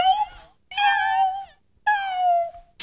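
A cat meows three times in quick succession, each call drawn-out and falling in pitch, loud, followed by a brief noisy rustle at the end.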